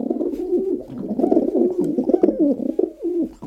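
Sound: pigeon cooing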